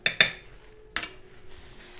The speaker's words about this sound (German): einen Kochlöffel. Und einmal den Butter ein bisschen verteilen in der Pfanne.